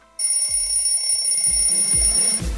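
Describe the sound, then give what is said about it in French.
A loud electronic alarm clock rings continuously with a piercing high-pitched tone, starting abruptly, with a few low thumps underneath, marking the start of the Coup de Boost segment, the day's second wake-up, from 2 to 3 pm. “Allez, faut se lever, c'est l'heure du coup de boost.”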